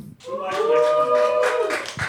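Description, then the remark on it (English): A small group cheers loudly with sustained voiced whoops for about two seconds, scattered claps mixed in, then tapering off, cheering to show they like Mexican Villa. “Okay, if you like Mexican Villa, cheer.”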